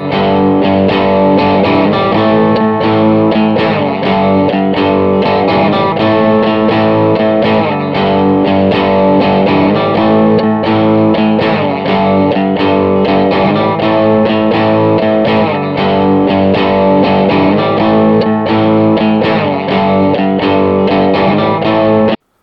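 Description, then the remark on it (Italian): A distorted electric guitar plays a short riff over the first two chords looping, the pattern repeating every couple of seconds at a loud, steady level with no talking. “Bene, ora state sentendo che stanno girando inserisco un piccolo riff.”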